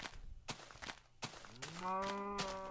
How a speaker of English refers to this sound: Moo to you too, my friend. Moo to you too.